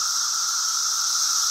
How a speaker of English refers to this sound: that is the sound of millions of cicadas clicking their wings together. As you can hear, it's incredibly loud